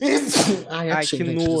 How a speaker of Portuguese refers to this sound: Desculpa. Saúde.